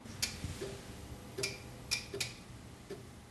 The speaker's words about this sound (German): Und diese Strahlung, die wird hier analysiert mit einem sogenannten Doppelmonochromator. Das ist ein Spektrometer und das hören Sie jetzt gleich auch tackern.